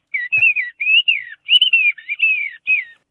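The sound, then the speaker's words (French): A bird singer whistles a rapid imitation of birdsong, bright warbling phrases and sliding trills in quick bursts, fairly loud, with no talking. “d'avoir été avec nous ce matin, chanteur d'oiseaux,”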